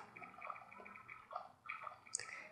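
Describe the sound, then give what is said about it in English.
Soft bubbling of water and water vapor forced out through a tube in a heated chemistry experiment with calcium, with small irregular pops and gurgles and a brief sharper splutter near the end; no one speaks. “Okay, you see that the water is squeezing out by the bubbles?”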